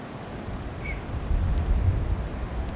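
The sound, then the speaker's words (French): Strong wind roars at the seashore, a steady low rumble buffeting the microphone and swelling louder midway, with no voices heard. “Ça souffle le vent là.”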